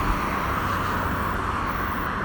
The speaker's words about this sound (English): You can probably hear some of the cars um, that I'm now I'm now back on the main road